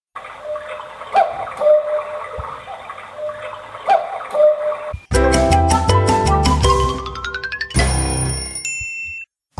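A short segment intro jingle with no talking: a few seconds of ticking, clock-like clicks and soft tones, then a loud burst of rapidly rising chime notes ending in bright, sustained bell-like tones.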